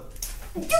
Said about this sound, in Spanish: ahí voy a estornudar. ¡Salud!